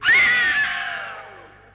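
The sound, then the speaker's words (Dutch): A single shrill, high-pitched scream bursts out loudly, then trails off and fades over about two seconds, with no talking around it. “waar hoor je in het holst van de nacht soms gegil?”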